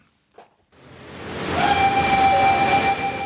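A Buenos Aires subway train on Line D rumbles loudly after a brief quiet start, its broad roar building steadily, then a high, steady metallic whine and squeal rising above the noise as it runs on.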